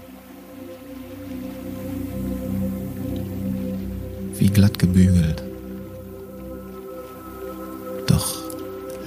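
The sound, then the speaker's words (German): Calm morning water with only slight waves laps gently against rocks in a few soft, wet splashes over a low steady background hum, while a person speaks briefly. “Oder das Wasser plätschern?”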